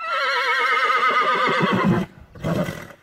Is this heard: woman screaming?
no